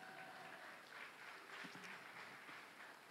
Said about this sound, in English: Thank you so much, guys. Shall we give a round of applause?